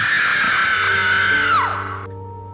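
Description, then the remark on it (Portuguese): A woman lets out a long, piercing scream of horror that holds steady, then pitches downward and breaks off, leaving a hollow tail echoing through the corridors of an asylum. “e ela pôde ver quem ainda tentava agarrá-la se arrependeu na mesma hora e mais uma vez seus gritos de horror ecoaram pelos corredores do hospício.”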